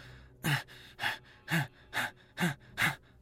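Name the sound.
gasping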